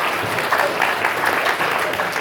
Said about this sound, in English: round of applause